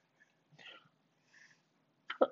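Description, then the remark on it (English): A short sneeze bursts out at the end, a sharp, loud, breathy double snap, preceded by a couple of softer hissing breaths; no one speaks. “Bless you.”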